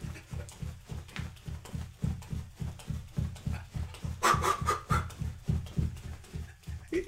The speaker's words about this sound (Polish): trzeba trochę podnieść ilość uderzeń serca na minutę, więc będę, będę, jak to się mówi, biegał w miejscu. I też tylko przez chwilę. Szybko, szybko!